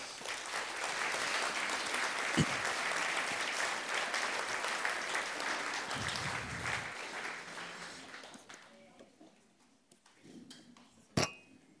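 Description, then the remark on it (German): An audience at Ecclesia claps steadily for about eight seconds to welcome two guests invited to come up, a dense, sustained burst of applause, which then fades out, followed by a few scattered sounds and a sharp click near the end. “Wir geben ihnen einen herzlichen Applaus.”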